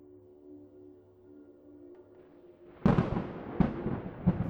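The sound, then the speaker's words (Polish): A quiet, steady low hum gives way to a sudden burst of thunder from a receding storm, arriving seven seconds after a lightning flash, rolling and rumbling with two further surges before fading slightly. “Grzmot dał o sobie znać dopiero po siedmiu długich sekundach.”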